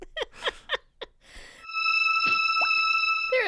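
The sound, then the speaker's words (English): Wet, bubbling bloops of blood bubbling up from a stabbed man's back in a film scene pop in a quick irregular run, then give way to a steady, eerie electronic tone with a few more gurgles beneath it. “Uh, but they walk down the hall towards this room, and uh, in a mirror balanced on the dresser, we watch as Will stabs the shit out of the boyfriend's back, and the blood makes bizarre blooping sounds as it bubbles up from his back”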